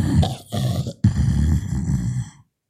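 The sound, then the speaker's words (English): A person's voice imitates a knocked-out dog groaning: two low, rough, drawn-out grunting moans, split by a brief pause, fairly loud, with no other talk. “Uh, however, the dog has been knocked out uh, completely, and so you just hear.”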